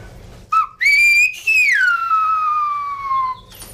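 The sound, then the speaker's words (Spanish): A loud, piercing human whistle in a whistled language, used for talking over long distances, calls to a person: a short rising note, then a long high tone that glides slowly downward, a whistled phrase meant to reach someone far away. “Hay que decir que el lenguaje silbado se, utiliza para hablar en largas distancias, porque para, para hablar en cortas distancias ya tenemos el habla.”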